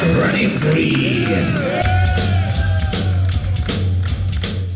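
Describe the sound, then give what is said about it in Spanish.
A loud live concert recording in the Czech Republic: a singer performing from a wheelchair in front of the stage, his voice rising over a dense, roaring crowd, with a steady low bass line kicking in partway through and cheers continuing throughout. “ahora en República Checa el tipo salió a cantar, en silla de ruedas y todo salió a cantar.”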